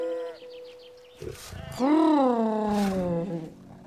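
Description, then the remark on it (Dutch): A hungry bear growls loudly as it lumbers toward sheep, one long roaring call that swells, then slowly sinks, after a few softer grunting sounds at the start. “Een hongerige beer hobbelt naar de schapen toe.”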